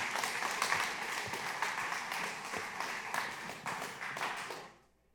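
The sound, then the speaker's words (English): An audience applauds for the Lord in a steady, dense wash of many hands clapping, holding strong for about four and a half seconds before quickly dying away to silence. “But let's clap for the Lord.”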